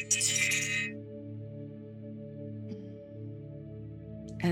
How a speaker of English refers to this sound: And then I'm going to ring our bell to get us centered and just take a moment to be present.